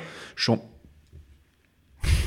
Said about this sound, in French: C'est le chien de Yvan qui ah, fait du bruit.